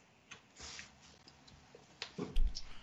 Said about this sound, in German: Ich habe jetzt eine Dose aufgemacht. Ihr, äh, haben wir jetzt gehört.